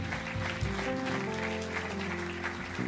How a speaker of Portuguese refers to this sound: Vamos dar um aplauso a quem tomou esta decisão hoje.